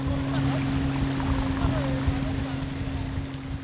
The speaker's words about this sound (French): au sud des îles Fidji, il faut prendre un petit bateau à moteur, une coquille de 2 mètres à peine où l'on cale son sac à dos entre deux bidons d'essence. On glisse sur l'eau turquoise et c'est un petit bout de paradis qui se dessine devant nous.